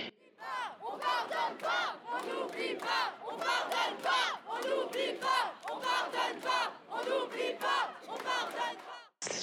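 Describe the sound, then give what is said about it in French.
A large protest crowd chants in loud, rhythmic bursts, many voices shouting together in steady repeated phrases that fill the whole stretch before cutting off abruptly. “Un divan en manif”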